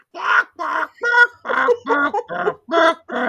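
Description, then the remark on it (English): A person's voice imitates a trained bird singing a school song, with about eight short, evenly spaced warbling notes delivered in a bouncy rhythm, fairly loud, with no other sounds around it. “at the end he trains a bird to sing. Yeah, and the bird sings. It sings the school song.”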